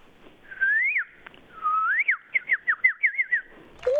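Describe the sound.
A person whistles an imitation of a bird call as one of ten animal sounds, two rising slides followed by a quick run of about eight short chirping trills, bright and high-pitched, with no talking.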